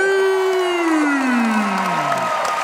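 A crowd cheers loudly, with one long voice whooping and sliding down in pitch above a steady wash of clapping and shouts for a few seconds.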